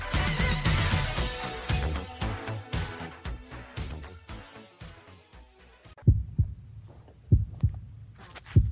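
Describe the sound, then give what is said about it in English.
Dense music gives way to a loud, low heartbeat sound effect, its thumps arriving in deep double beats about once a second with no voices. “There's the Heart Beach, which means we're back for part two of Ghost Chronicles International.”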